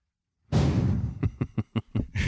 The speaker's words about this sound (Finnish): Kenen puhelin tällä soi? se on iPad, eikä sen pitäisi soija.